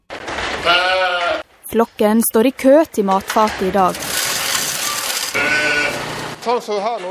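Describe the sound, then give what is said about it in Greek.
Sheep bleat loudly, a string of wavering, quavering cries in quick succession, broken by a brief stretch of rough, noisy rustling before more bleats follow. “Κάποιοι κακεντρεχείς υποστηρίζουν ότι μεγάλο τμήμα του προγράμματος περιλαμβάνει μόνο αφιερώματα σε πρόβατα και αγελάδες.”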